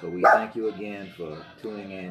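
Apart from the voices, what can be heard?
dog barking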